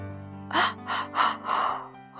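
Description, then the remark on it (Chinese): A voice imitates the big, drawn-out yawn of a little brown bear named Douglas on a spring morning, a series of breathy, moaning swells rising and falling over a steady low tone, moderately loud and with no other talking. “从一个深深的黑洞下面，传来一声大大的哈欠。”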